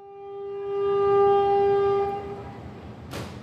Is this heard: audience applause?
no